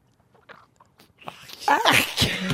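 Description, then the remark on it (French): A voice imitates squeezing a fresh grapefruit with wet, squelchy mouth noises, starting with a few soft clicks and swelling into a loud, spluttering, juicy spray. “Ça doit faire un beau bruit, ça, quand tu presses ça, hein?”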